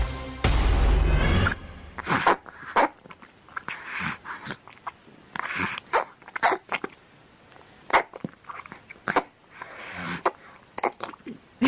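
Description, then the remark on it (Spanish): Baby noises: a longer, louder opening burst, then a scattered string of short sputters, squeaks and breathy little sneeze-like sounds, irregular and fairly loud, with no one talking. “estamos escuchando ruidos de bebés.”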